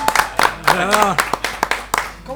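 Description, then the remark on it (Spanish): Sparse, uneven applause from a small audience at the No Pipa Club, welcoming a band's members as guests: a dozen or so sharp claps scattered irregularly, with a voice briefly talking over them midway. “Vamos a dar un aplauso. Un aplauso.”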